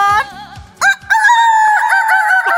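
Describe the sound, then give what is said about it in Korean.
A person imitates a rooster crowing, one long, loud, drawn-out cock-a-doodle-doo with a few short rising notes before it. “아이고 난왜 이렇게 바쁘지 이래 노래도 하고 닭소리 다 하라고”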